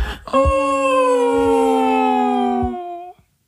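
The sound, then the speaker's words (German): A person imitates a dog's howl, the way the dog howls loudly on hearing the car arrive: one long, steady, loud howl lasting about three seconds, holding a single pitch and lifting slightly at the end before stopping, with no talking. “Ich habe jetzt mitgejault.”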